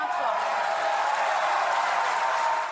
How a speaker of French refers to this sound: un tonnerre d'applaudissements et des députés qui se lèvent de chaque côté de l'hémicycle pour célébrer leur victoire. Ils font partie de l'opposition et pour la première fois, ils ont mis en échec le gouvernement lors d'un vote à l'Assemblée.